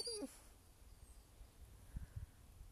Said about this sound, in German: Das ist mein Hund